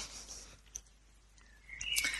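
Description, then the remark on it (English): Birds chirp outdoors in a very small town a couple of hours from Dusseldorf, a few short, bright calls and a rising whistle that stand out near the end against a quiet, airy background hiss. No one is talking. “The birds are singing here.”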